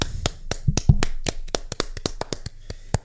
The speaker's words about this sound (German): Ähm, da, da klatschen wir jetzt einfach mal.